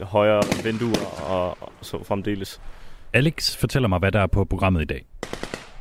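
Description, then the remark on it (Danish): Sharp AK-47 rifle shots crack repeatedly in the background, scattered bursts as Ukrainian soldiers fire at targets out in the field at a training site in northern England, while a man speaks steadily in the foreground over them. “Det, du kan høre i baggrunden her, det er ukrainske soldater, bevæbnet med en AK-47, som prøver at ramme deres mål ude på marken.”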